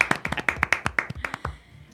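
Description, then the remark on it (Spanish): A short burst of hand clapping, roughly a dozen quick, slightly uneven claps from one or two people, fading out after about a second and a half. “La verdad es que te tenemos que aplaudir, le aplaudimos, no te tiramos por la ventana.”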